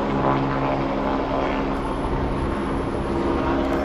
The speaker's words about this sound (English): We got helicopters flying around here. got helicopters flying all around here. I, I don't know what the deal is we are investigating it, okay? We are investigating it. see what this is all about. Here's another helicopter up there.